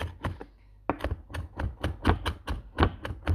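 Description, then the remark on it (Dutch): A knife chops steadily on a cutting board while someone cooks for a Zeeland Christmas meal the next day, roughly a dozen sharp thwacks in a quick, slightly uneven rhythm, with no talking. “Terwijl ik deze podcast opneem, ben ik aan het koken je hoort me nu selen hakken. ik eh, ben aan het koken voor borsic morgen.”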